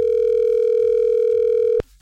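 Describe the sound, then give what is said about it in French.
A steady, loud telephone tone on a call, a single unbroken electronic pitch holding for nearly two seconds before cutting off abruptly with a click, with no voices. “Bizarre la sonnerie.”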